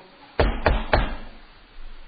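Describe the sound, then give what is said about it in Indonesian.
Three firm knocks on a door in quick, even succession, fairly loud, given as a signal from behind the door, followed by quiet with no talking. “Kalau selesai ini cukup dengan memberi isyarat di belakang pintu atau di belakang lemari misalnya, cukup.”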